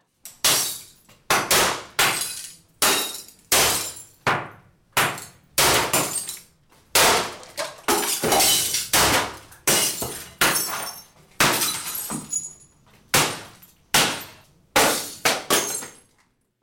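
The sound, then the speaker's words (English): Glass being smashed with baseball bats over and over, roughly twenty loud crashes in an irregular rhythm, each followed by a bright tinkling shatter as shards fall. No one speaks. “the sound you just heard was indeed glass breaking and people breaking it”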